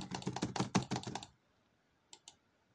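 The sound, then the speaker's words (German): Loud, rapid typing on a computer keyboard to quickly finish a crafting recipe, a dense burst of clacking keystrokes for over a second, then quiet followed by two more isolated key taps. “Ja, frag mich nicht, warum ich mir so laut auf meine Tastatur gespielt habe.”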